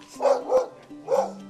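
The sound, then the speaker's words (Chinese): A dog barks three times, two quick barks followed by a brief pause and a third, each a sharp mid-pitched woof with no talking over them; the dog is shut in and guards the grounds. “不会啦，狗狗是关起来的。”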